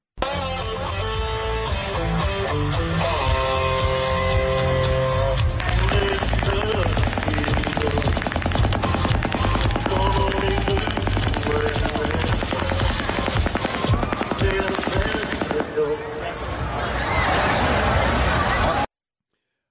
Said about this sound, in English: tell me, what does this sound like to you? What kind of a weapon is this? fully automatic something. That weapon hasn't been identified yet.